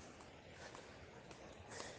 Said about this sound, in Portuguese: O barulho da, do, do chinelo já abafado pela areia. Estou aqui a 10 metros da praia.